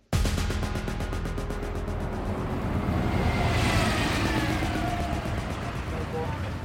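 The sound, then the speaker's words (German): Steady, loud street traffic by a small green strip at the Anhalter Bahnhof, near a taxi stand, fills the whole stretch, a dense low rumble of engines and tires with a rising whoosh as a vehicle passes midway, and no one speaking. “Ein lauter Ort mitten im Straßenverkehr.”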